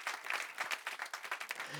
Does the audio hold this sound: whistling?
no